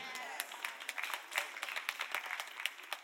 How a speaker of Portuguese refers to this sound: Eu acho, que vocês precisam de terapia porque só três bateram palmas.